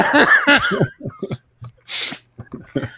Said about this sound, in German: oh, jetzt muss ich husten. Moment, rasch. Ah, oh, ich mache rasch stumm.